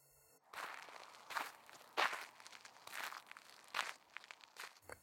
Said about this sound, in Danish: Bladene knæser under deres fødder, mens de går rundt og leder efter nogen i flotte farver.